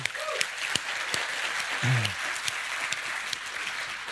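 An audience claps steadily for several seconds, a dense patter of many hands with a few sharper claps standing out, and a brief low murmur partway through.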